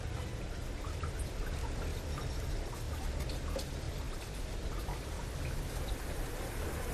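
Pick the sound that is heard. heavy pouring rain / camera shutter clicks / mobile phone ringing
heavy pouring rain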